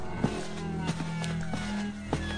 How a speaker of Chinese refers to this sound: 接着，他听到了某人起床的声音、穿拖鞋的声音和越来越近的脚步声。